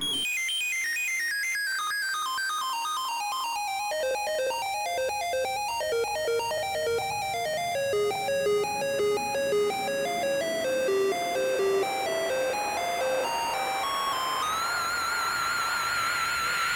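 Electronic remix of music from the Robocop 3 video game, bright chiptune-style synth notes tumbling in fast descending arpeggios, then climbing again over a soft steady backing, with no voices.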